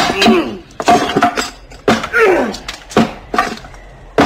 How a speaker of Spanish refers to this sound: Otra vez el hacha se elevó y volvió a descargar un golpe. Crujieron los paneles de la puerta, haciendo temblar el marco. El filo se hundió en la madera.